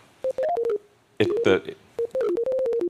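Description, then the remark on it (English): Sonified neural spikes from a pig's brain, transmitted by an implanted Neuralink device as the pig's snout is touched: quick runs of clear electronic beeps wavering slightly in pitch, broken midway by a dense crackling burst, with a voice briefly murmuring underneath. “you, can, you can see that there's a whole bunch more neurons that fire and that sound you hear is a, a collection of neuron sp neural spikes.”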